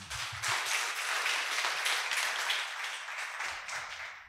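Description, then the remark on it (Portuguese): A crowd claps steadily, a dense wash of many hands applauding at once, sustained and fairly loud for several seconds before beginning to thin out slightly at the end. “Então, Salva de palmas, agradece.”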